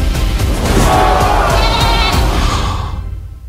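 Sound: goat bleating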